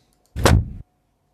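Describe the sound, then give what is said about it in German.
A single car door slams shut, loud and heavy, with a short rattling clatter in its brief tail before it cuts to silence. No one speaks. “Das Problem ist, dass du die ganze Zeit gesagt hast, du möchtest eine Autotür von einem Benz haben.”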